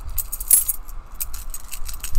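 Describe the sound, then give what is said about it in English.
A bunch of keys jangles in several short, bright bursts, the loudest near the start, with a low rumble underneath and no one talking. “Next time you look at your car keys or your bunch of keys, what, what do you think of?”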